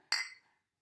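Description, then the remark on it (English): A single bright clink of beer glasses in a toast rings out sharply and then fades over about half a second, fairly loud, with no talking. “I got some a recommendation from my cousin to not knock the glasses on the table so hard because she was listening to it in headphones and said she had to like get them out of her ear when I when we were doing that”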